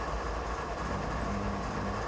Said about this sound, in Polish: o, tutaj widzicie z kokpitu mamy czerwone światło i czekamy na przejazd pociągu.